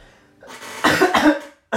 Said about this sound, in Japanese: 本当にごめんなさい咳させてください